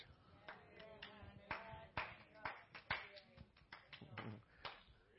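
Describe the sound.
Scattered hand claps during a church service ring out at irregular intervals, sharp, about a dozen over a few seconds, with faint voices murmuring underneath.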